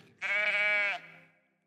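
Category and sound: animal, sheep bleating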